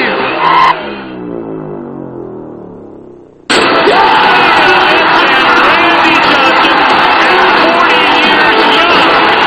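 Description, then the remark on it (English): The baseball crowd at Turner Field stands and cheers as Randy Johnson is one out away from a perfect game: a short burst that fades away, then a loud, sustained roar with scattered whoops and shouts that carries on unbroken to the end. “He is one out away from a perfect game, and the crowd stands at Turner Field.”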